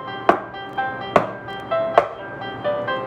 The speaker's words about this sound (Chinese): 天哪！猫的手正在冒烟，但它忍着疼痛，继续敲门。